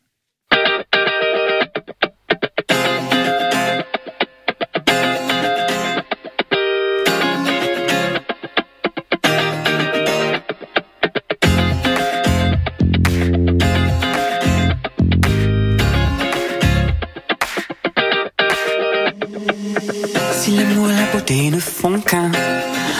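A loud, full-band song plays continuously during a music break on Radio G, 101.5 FM, with heavily effected, distorted guitar tones over a driving beat and deep bass hits, the music dense throughout.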